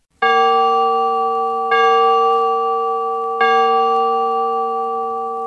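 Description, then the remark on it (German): A church bell tolls a death knell in three slow, evenly spaced strokes, each ringing out loud with a long, shimmering hum that barely fades before the next strike. “War die verstorbene Person eine Frau, so wurde beim Zeichen das Geläute ausglitt.”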